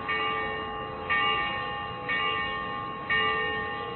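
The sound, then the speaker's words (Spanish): A bell tolls steadily from a belfry in the dead of night in Girona, each strike roughly a second apart, with a long ringing hum sustaining between blows. No voices, just the resonant chime repeating at an even pace. “Una campana en mitad de la noche cerrada había comenzado a sonar. Su sonido salía del campanario y viajaba por toda la ciudad.”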